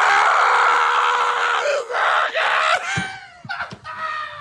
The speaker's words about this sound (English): just screaming Raiola. Do you know how many times I've thought of this drop from when you yelled Donovan Raiola?